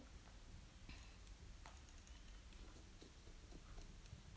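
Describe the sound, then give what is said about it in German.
Quiet, steady footsteps in a video game thud and click at a slow, uneven pace against a hissy background, each step a short, sharp tap, with no voices present. “Hörst du die Schritte?”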